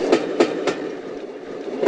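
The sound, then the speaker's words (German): A train carriage rolls steadily along the rails, with a continuous low rumble and a few sharp rhythmic clacks from the wheels passing over track joints. “Ich bin nur überlegen, ob mir schon eine Geschichte einfällt, wo ich mal irgendwie was in der Eisenbahn erzähle, dass wir irgendwo in einem Waggon sind.”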